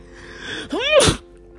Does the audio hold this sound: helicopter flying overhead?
no